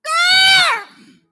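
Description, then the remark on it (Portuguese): A voice imitates the odd, chicken-like call of an eagle raised among chickens in a farm chicken coop: a single loud, high, strained squawk held for most of a second, then sliding down in pitch and trailing off into a breathy fade. “Aí, só que o canto dela é estranho.”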